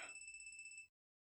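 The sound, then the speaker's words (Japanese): A mobile phone rings with a steady, rapidly pulsing electronic trill, sharp high tones repeating evenly for under a second before cutting off abruptly into silence. No voices. “なんで携帯が鳴っとるんや。”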